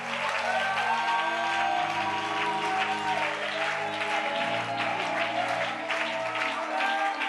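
An audience in a church breaks into loud, sustained cheering and applause for the Lord, a dense wash of clapping and shouting voices that holds steady for several seconds, with what sounds like music humming underneath.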